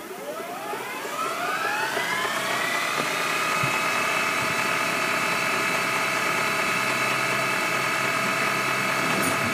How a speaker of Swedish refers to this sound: Ja, men så tråkigt att spola tillbaka band, Fast videoband. Alltså. Idag så, så kan jag sakna det. Främst ljudet.